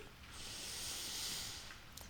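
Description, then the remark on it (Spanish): A single long, airy inhale drawn slowly through the mouth, swelling and fading over about a second and a half, with no talking: a deep breath taken during a guided breathing exercise. “Toma una profunda respiración”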